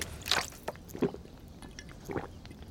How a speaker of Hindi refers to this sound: alarm बंद करने के बाद उसने पास ही पड़ी पानी की बोतल उठाई और पूरी की पूरी अपने हलक के नीचे उतार दी